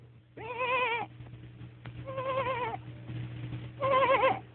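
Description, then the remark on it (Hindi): Three quavering bleats from a lost sheep caught in thorny bushes on a steep hillside, each about a second long with wavering, harmonic-rich tones, separated by short gaps against a low steady hum. Clear, no talking. “अरे जा काय की आवाज आए अरे जा तो मिलना कैसी आवाज है”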